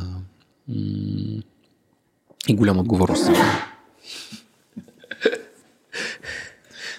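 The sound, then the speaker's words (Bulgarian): A pet dog named Elenko lets out a sharp, snorting sneeze, a short loud burst, with a person talking briefly before it and more talk afterward. “Това, което чухте е Еленко. Добре, получи. На здраве.”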